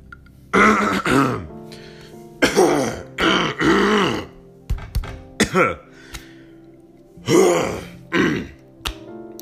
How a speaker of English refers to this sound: Sorry, just clearing my throat.